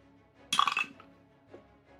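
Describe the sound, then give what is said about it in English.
Dice clatter across a hard surface in a quick burst of bright, clicking rattles lasting about half a second, followed by a faint single click as they settle. “You guys have rolled nines like four times.”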